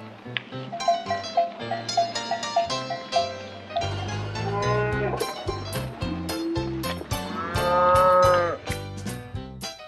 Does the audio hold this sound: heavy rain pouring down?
no